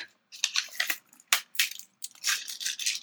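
Someone breaking into a spiced chili chocolate bar: irregular bursts of crisp, papery crinkling and crackling with brief pauses between, fairly loud, with no talking.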